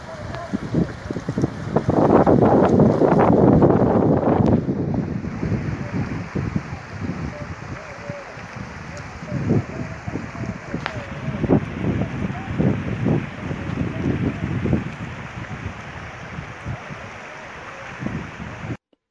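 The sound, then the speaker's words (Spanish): Steady rushing water of the Colca River in Peru and gusting wind roar outdoors, loudest in the first few seconds, as a rescue team with Peru's Public Ministry and National Police crosses the river to extract a body from the water, with muffled, indistinct voices and bumps breaking through the constant noise. “El equipo de rescate está cruzando el río Colca Ministerio Público, Policía Nacional del Perú.”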